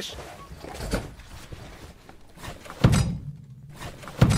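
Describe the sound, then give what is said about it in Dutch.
Dull, heavy thuds of someone with short legs landing a short jump on a floor, barely getting off it: a softer impact early, then two louder ones over a second apart, against a faint background. “Als ik jou zie lopen op je korte pootjes, ja, Spring”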